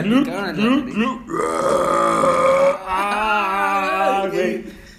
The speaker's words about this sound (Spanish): Era puro pinche eructo.